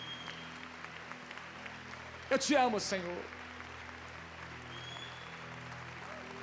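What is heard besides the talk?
audience applauding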